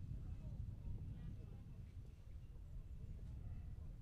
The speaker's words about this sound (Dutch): Voetstappen. Voetstappen van een vrouw met een grijs jak en grijs haar. Ze wandelt naar de kerk.